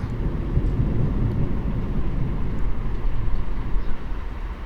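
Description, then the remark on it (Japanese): A deep rumble of thunder rolls on steadily for several seconds, low and broad, across a wide area of sky, under mostly clear, sunny weather with high clouds and no lightning visible, with no voices over it. “今、かなり広い範囲で雷が轟きました全然目では見えないんですけどねあの風景的にはすごい晴れていて、まあ、確かに高い雲が遠くに浮かんでますが”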